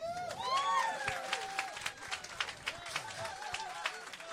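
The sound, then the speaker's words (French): A small audience claps steadily for a few seconds, applauding a man introduced as the organization's accountant of ten years, with scattered whistles and cheering voices rising over the patter of hands. “le comptable de l'organisme depuis déjà dix ans, applaudissez.”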